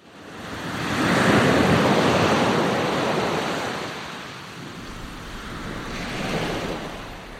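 Ocean waves break and wash onto a shore at sunset in a steady, broad roar, swelling over the first few seconds, easing, then surging again near the end, with some wind noise and no voices.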